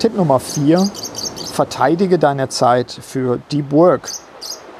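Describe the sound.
A canary chirps in quick, high-pitched bursts in the background, fairly faint, while a person speaks steadily over it in the foreground.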